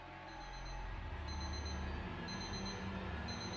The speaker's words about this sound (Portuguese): E então, ao som do despertador, Rebeca abriu os olhos.